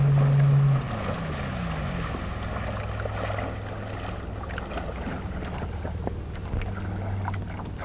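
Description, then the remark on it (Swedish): A motorboat carrying two men steers through reeds toward a camp area's jetty, its engine droning steadily at a low pitch, the hum shifting slightly as it approaches, with wind noise and scattered small knocks and splashes over the rumble. No one speaks. “I samma stund hör vi ljudet av en motorbåt som närmar sig lägerområdets brygga.”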